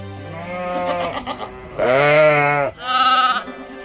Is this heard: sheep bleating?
yes